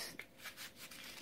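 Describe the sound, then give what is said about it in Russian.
A match is struck against a box, lit six times as part of a spell to extinguish love: a sharp scratch followed by several quick, dry rasping scrapes, fairly quiet, with no voices. “Шесть раз зажигаем”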